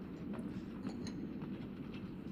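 A steady, heavy rumble of a moving train with irregular metallic clicks and clacks from the wheels on the rails, continuous with no voices.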